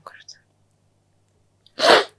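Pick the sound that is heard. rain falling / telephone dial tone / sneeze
sneeze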